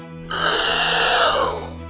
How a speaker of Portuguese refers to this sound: Mas o príncipe apara-os com a espada e, depois de muitos golpes, consegue acutilar a cabeça do inimigo. O escorpião solta um berro de dor